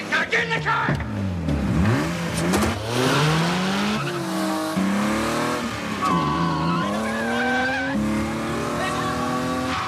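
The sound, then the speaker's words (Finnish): Loud car engines roar and rev hard in a film car-chase scene, their pitch sweeping up and down through quick gear changes, with squealing tires mixed in, continuous like a high-speed chase. “Ronin niminen elokuva, missä, missä tota, on varmasti niin kuin kaikkien aikojen parhaimmat autolla ajokohtaukset ikinä”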